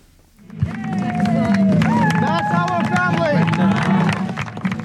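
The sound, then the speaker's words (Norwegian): A crowd outside the courtroom in Christchurch, New Zealand, bursts into cheering and clapping after hearing the sentence given to the gunman behind the city's mosque attacks, with many voices shouting and whooping over steady, dense applause that holds loud for several seconds. “Dette er familien vår, sier en av de overlevende etter mosketerroren og peker på folkemengden som jubler og klapper utenfor rettssalen i eh, Christchurch.”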